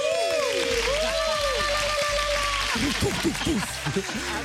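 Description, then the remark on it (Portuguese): A person imitates fireworks with their mouth: whistling tones that glide up and down like rising rockets, then a quick run of arcing whistles and popping bursts, with no words spoken. “Foram fogos de artifício da minha boca.”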